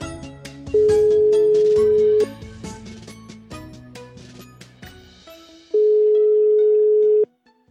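An outgoing-call ringback tone sounds twice, each a steady mid-pitched beep lasting about a second and a half with a long gap between, over a bed of background music that fades out.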